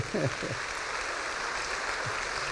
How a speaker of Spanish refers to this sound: no, que Dios bendiga a los médicos, ¿verdad? Amén. denle palmas al Señor por los médicos.